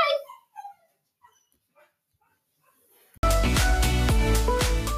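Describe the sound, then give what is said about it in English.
The speaker's female dogs whimper at home and give a few short, high barks, the cries tapering off into quieter whines before loud music abruptly cuts in. “Anyways, you can hear my girls at home.”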